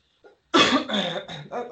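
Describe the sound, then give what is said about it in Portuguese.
A faint brief sound, then a loud burst of harsh coughing, several hacking coughs run together over about a second with no talking. “Rapaz, parece, que a minha, parece que a minha tosse passou pra tu aí, não foi?”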